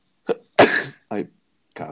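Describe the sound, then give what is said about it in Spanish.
A sharp sneeze or cough bursts out loudly after a short catch of breath, followed by a brief spoken exclamation and then more talking. “Salud, perdón.”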